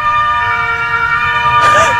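An emergency vehicle siren, from an ambulance or fire engine, wails outside with a steady, piercing tone that swells and shifts pitch near the end, over a low rumble of street traffic, at an intersection with traffic lights below a studio where cars are slow to give way.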